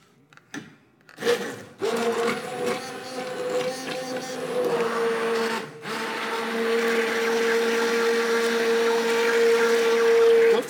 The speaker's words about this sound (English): With immersion this, blender just goes in it there, it just goes right into the pan.